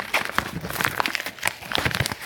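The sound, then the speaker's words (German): Crinkling of a chocolate bar's paper wrapper being folded shut to close the bar again after two pieces were broken off, a steady run of small crackles and rustles with no voices. “So, Tafel wieder schließen. Irgendwie dieses Papier wieder zusammenklappen.”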